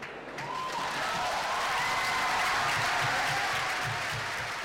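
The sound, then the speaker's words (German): Sustained applause from a large crowd of delegates in Rome after the vote adopting the statute for the international criminal court, dense and steady clapping with cheering mixed in for the whole stretch without any speech. “Aber auch wenn Benjamin Ferenz in den Jubel einstimmt”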